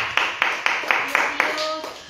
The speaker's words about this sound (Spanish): Palmas al que vive, hermano, por todo el mundo.